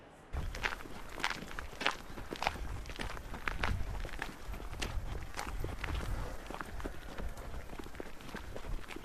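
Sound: footsteps walking through a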